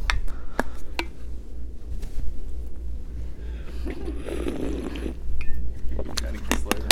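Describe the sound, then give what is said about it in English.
Someone takes a drink of water, with a few sharp clinks of a glass, a soft stretch of sipping and swallowing, and a steady low hum underneath. “Uh, first, I need some water.”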